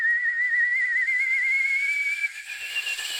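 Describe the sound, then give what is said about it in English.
A person imitates a boiling kettle with a sustained, high-pitched wavering whistle over a breathy hiss, holding steady for about two seconds before it thins and fades. “That is sensational kettle boiling noise.”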